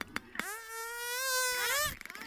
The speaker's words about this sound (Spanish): Hay otro que es un tipo de zumbido que los machos usan para estimular a, las hembras durante el cortejo.